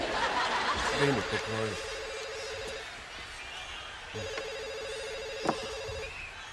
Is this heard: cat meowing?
no